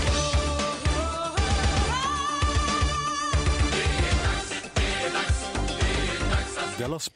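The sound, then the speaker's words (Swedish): A classic jingle: a loud, busy burst of music with a steady beat, bright melodic lines and full instrumentation, playing on its own for several seconds with no talking. “Nu är det egentligen dags för den klassiska jingeln som låter så här.”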